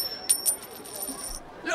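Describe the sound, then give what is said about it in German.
A gold coin is flicked from a mother's thumb up into the air with a bright metallic ping that rings on as a sustained high shimmer, fading out before a soft rustle at the end. “Klingend sprang die Münze von dem Daumen der Mutter in die Luft.”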